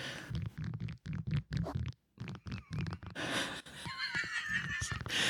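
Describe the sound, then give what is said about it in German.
Fairly loud crackling and creaking of a bendable rod being flexed: a series of short choppy bursts, then a sustained squeaky, strained creak toward the end. “Seid ihr bereit da draußen? Das Knacken.”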